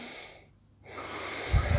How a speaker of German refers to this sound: Hm, wann hast du dich das letzte Mal beim Atmen beobachtet? Genau. Ja. So. Wie hört sich denn das an, wenn ich einatme